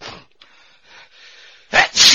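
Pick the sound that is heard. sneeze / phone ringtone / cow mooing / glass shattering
sneeze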